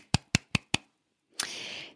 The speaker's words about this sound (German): Kleiner Applaus an der Stelle. Applaus, Applaus, Applaus.